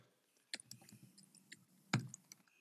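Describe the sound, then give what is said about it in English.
Scattered clicks of typing on a computer keyboard, fairly quiet, with irregular taps and a couple of sharper, louder keystrokes standing out over a faint low background hum. “Keep thinking while I think ahead while I'm typing.”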